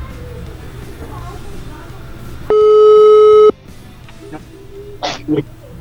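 A single loud telephone ringing tone of a call placed by a radio show, steady and about a second long, rises out of low background hiss, then cuts off, leaving faint rustles and small noises on the line.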